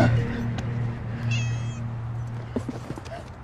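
A pet cat lets out a thin, high meow from inside a man's bag, stopped at a bus door on Yanjiang East Road, over a steady low hum, followed by a few faint rustles and taps; nobody speaks.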